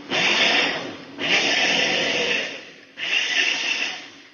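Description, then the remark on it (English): A blender holding a mixture with sweetened condensed milk pulses three times in quick succession, each burst a loud, steady whirring roar lasting about a second with brief pauses between. No one speaks. “So I um, I picked it up, I shook it, um, like turned it right side up and upside down, and then I'm going to pulse it again a couple times.”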